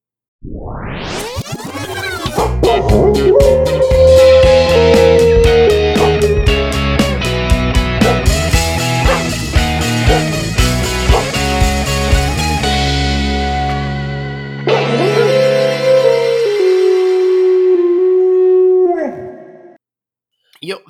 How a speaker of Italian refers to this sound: Sì, lancerà la sigla per noi. Questa è una sigla e fa più o meno così.